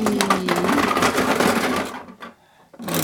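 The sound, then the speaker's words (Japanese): A capsule toy machine's handle being cranked to draw which film will be reviewed, a dense run of rapid mechanical ratcheting clicks for about two seconds, then a short pause and a final rattling clunk. “ガチャガチャガチャリとどれが来るかな”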